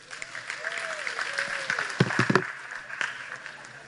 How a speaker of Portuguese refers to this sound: Isso, pode aplaudir assim.